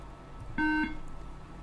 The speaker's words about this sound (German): Wir hören einen Piepton.